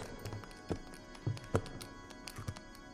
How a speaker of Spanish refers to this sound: Ah, en el patio abajo, en el camino pedregoso, se oye el traqueteo de ruedas pesadas